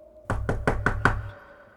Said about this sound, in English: And now he's he's knocking at our door, taking us on our final journey.